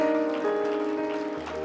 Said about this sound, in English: Could we clap our hands for knowing that the Lord has heard our prayer?